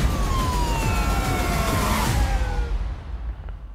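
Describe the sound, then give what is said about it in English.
Police sirens from two police cars on a hill wail over a loud rush of engine and road noise, their tones sliding downward as if passing by, then the din fades somewhat near the end. “You have two cop cars on his hill. You need to lose them.”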